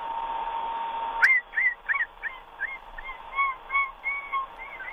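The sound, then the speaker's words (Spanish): A voice imitates a run-over rabbit with a string of about ten high, thin squeaks and whistly cries, each bending up and down in pitch, repeated in an uneven rhythm over a faint background hiss. “no, no, estabas en conejo, estabas muy bien en tu tono de conejo atropellado.”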